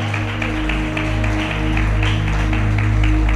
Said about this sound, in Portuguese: Aplauda ao Senhor Jesus.